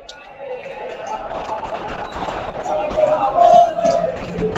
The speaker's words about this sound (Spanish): Hoy, después, después, derecho acá al estadio. acá se escucha ya, no sé si se escuchan de fondo todos los argentinos cantando. Sí, se escucha.